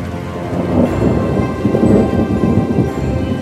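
A heavy tropical downpour roars steadily, a dense, loud wash of rain with low rumbling thunder swelling underneath and no voices.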